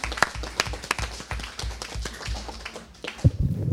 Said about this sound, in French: des applaudissements chaleureux.